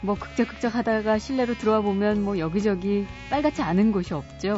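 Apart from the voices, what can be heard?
mosquito buzzing whine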